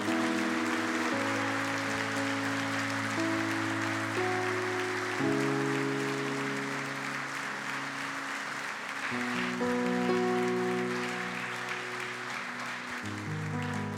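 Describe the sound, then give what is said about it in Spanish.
A church audience applauds the Lord steadily for several seconds after a prayer, a dense wash of clapping over sustained keyboard or organ chords that shift slowly underneath. “Démosle un aplauso al Señor.”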